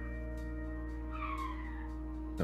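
A heavy truck rumbles past on the street outside with a steady low engine drone, a high squealing brake sweep in the middle, and a sharp clunk near the end.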